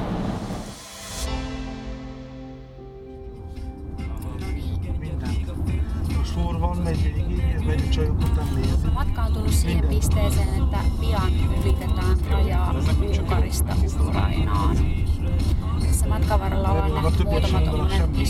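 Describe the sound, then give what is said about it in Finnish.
Heavy engines of several buses, apparently carrying refugees across the border, rumble steadily as they idle and move in busy traffic, with a crowd of voices chattering and scattered clatter layered over the continuous low drone. “useampi linja-auto, joilla ilmeisesti pakolaisia tuosta rajaa yli sitten autetaan jatkamaan matkaansa.”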